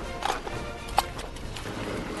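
Horse hooves pound along in a loose, uneven rhythm of sharp thuds, one hit standing out louder, over a steady wash of background noise with no voices, as a horse nears the finish line.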